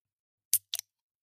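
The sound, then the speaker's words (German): Two quick, bright metallic clacks of an advertising tin can being handled, the second a little rattly, with silence around them and no voices. “Und das, was ihr da gehört habt, war die Werbedose.”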